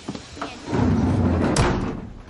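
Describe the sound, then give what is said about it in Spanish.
Someone walks to a train carriage's compartment door and closes it: the door rumbles along its track for about a second and shuts with a firm thud, fairly loud, with no one speaking. “Va hacia la puerta y la cierra.”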